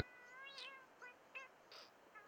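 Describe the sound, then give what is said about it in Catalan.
A cat meows insistently, very close, several short, whiny calls in quick succession with brief pauses between them, fairly quiet and with no voices. “És un miol, insistent i molt pròxim”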